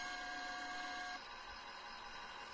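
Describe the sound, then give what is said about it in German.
A video game forklift raises its fork while driving in reverse, with a steady mechanical motor whine and a sustained tone that drops out partway through, leaving a continuous hydraulic hum. No one speaks. “Wenn man rückwärts fährt, da fahre ich die Gabel jetzt hoch”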